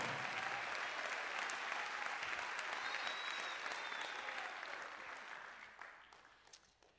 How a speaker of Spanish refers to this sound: ¿Cuántos tienen vida eterna? Dele fortísimo ese aplauso si tiene vida en Cristo.